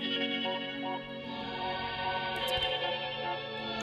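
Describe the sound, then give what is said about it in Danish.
A pop song sung in Simlish plays steadily at full volume, with dense layered, effects-heavy instrumentation and no one talking over it. “det her nummer, der hedder …, det er også lavet i en Sims-version”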